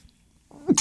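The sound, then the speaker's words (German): A single quick sneeze, preceded by a short sharp intake of breath and ending in a burst of breathy noise, fairly loud, with no one talking. “Gesundheit.”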